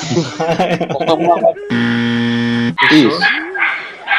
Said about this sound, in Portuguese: Como é que a pessoa bate o liquidificador na hora que tu tá gravando, rapaz?